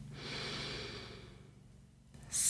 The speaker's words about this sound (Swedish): Så återigen, slut ögonen. Ta ett djupt andetag in.